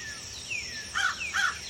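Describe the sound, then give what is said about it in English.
Woodland birds in the woods call over one another from all directions, with thin descending whistles followed by two louder, chirpy bursts close together, set against a quiet background with no one speaking. “For instance, if you go down to the woods today, most likely from all directions, you'll hear sounds like this.”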